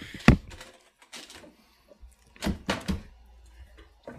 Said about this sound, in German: stört sich, wenn ich den Stuhl tauschen würde? Nö, gar nicht. Tu. Ich, ich muss mal ganz kurz einen anderen Stuhl holen, warte.